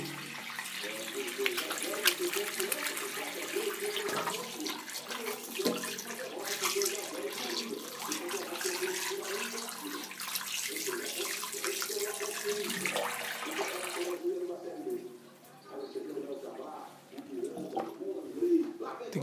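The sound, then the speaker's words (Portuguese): A bathroom tap runs steadily with a bright, hissing splash for about fourteen seconds, then cuts off. Afterward, quieter background sounds remain, with some voice-like murmuring. “ASMR de banheiro. Lavem as mãos.”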